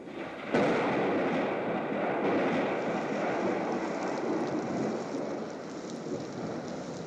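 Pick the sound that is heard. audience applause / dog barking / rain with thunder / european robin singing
rain with thunder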